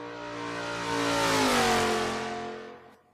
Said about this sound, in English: Holy cow. So that is their MST. And it's essentially a sport touring bike